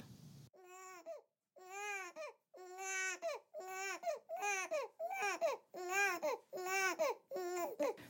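A baby cries in the evening in a steady series of wailing bursts, each rising and falling in pitch with brief gaps between them, fairly loud with no one talking.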